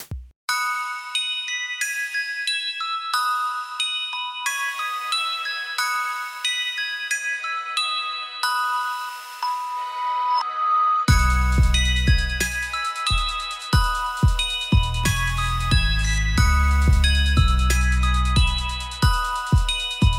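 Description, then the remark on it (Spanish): A bright, tinkling, newly made ice cream truck jingle plays on its own, a chiming melody that gains a deep, pulsing bass line about halfway through and grows fuller and louder. “Pues los dejamos con este nuevo jingle y ¿qué opinan? ¿Se les antoja un helado cuando escuchas esto?”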